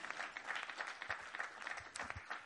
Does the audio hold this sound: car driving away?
no